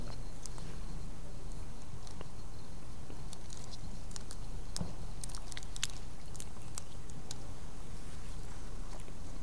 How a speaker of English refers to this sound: So I'd invite you to take um, the bread uh, carefully as it um, tends to crumble and to partake together. Let's eat together.